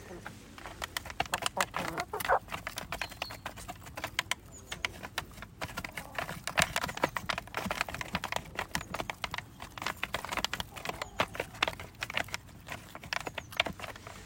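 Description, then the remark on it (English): Eight pet chickens peck steadily at a feeder with their heads in, a dense, irregular patter of sharp taps and clicks, with faint soft clucking mixed in throughout. “Just listen to them all pecking away.”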